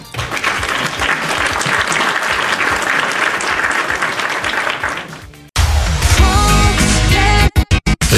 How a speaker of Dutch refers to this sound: Applaus